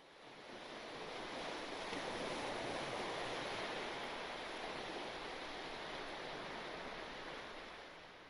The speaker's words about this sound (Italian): Il mare si dibatteva impetuoso davanti a loro, sembrando avvolgere l'isola in un gigantesco abbraccio incostante.